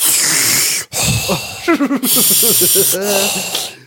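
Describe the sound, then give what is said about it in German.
A voice imitates the hissing breathing of a Darth Vader mask: loud, breathy hisses in several long pushes, with voiced, talk-like sounds mixed in between and over them. “Und jeder hat noch so Geräusche.”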